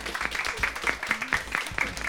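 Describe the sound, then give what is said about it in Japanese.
An audience applauds, a dense, steady patter of many hands clapping for about two seconds, with a few sharper, louder claps standing out from the crackling wash. “大きな拍手お願いします。”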